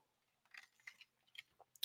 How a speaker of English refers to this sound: as I take a sip of my little liquid here